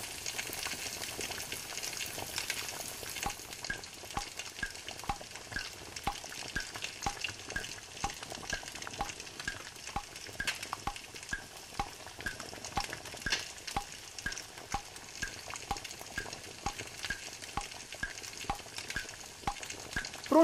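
Bacon sizzles and crackles steadily in a hot pan as it finishes frying, a dense, continuous frying hiss with small pops throughout, fairly loud, with no talking.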